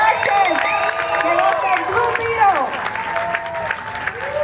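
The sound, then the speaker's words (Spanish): Loud, sustained applause for Ángel Manuel Soto, whose film is being presented, fills the whole stretch, a dense wash of clapping with whoops and shouted cheers rising over it and never letting up. “Fuerte aplauso, Ángel Manuel Soto.”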